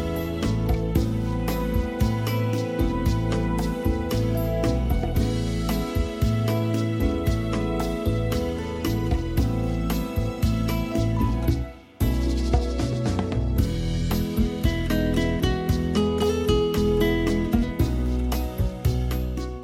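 A Japanese pop song plays loud and full, with steady driving beat, bright synths and dense instrumentation, briefly dropping out for a split second midway before surging back in.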